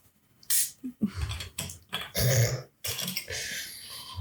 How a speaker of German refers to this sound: Darf ich noch einen Schluck trinken? Ich glaube, das wird ja, laut, natürlich. weil das Sprudelwasser ist.